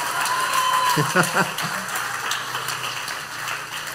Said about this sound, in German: ja, könnt ruhig klatschen für so eine schöne Veranstaltung.